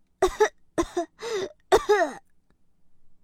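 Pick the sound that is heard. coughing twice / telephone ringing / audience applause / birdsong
coughing twice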